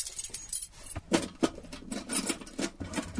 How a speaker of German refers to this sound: Endlich ein Schlüssel, der passt.